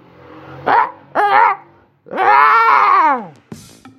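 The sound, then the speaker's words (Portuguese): A person mimics a rooster crowing: two short voiced bursts followed by a long, strained call that falls in pitch. It is loud and alone, ending with a brief breath. “Mas se bem que eu consigo imitar uma, um galo.”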